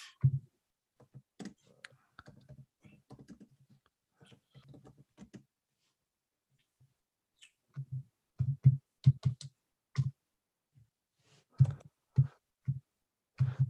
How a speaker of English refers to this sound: punching numbers into oh, his calculator.